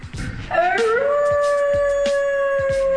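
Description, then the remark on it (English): A person lets out a loud wolf-like howl, sliding upward and then holding a long steady note for a couple of seconds, with no talking over it. “and there he is, the big bad wolf from Brush Avenue.”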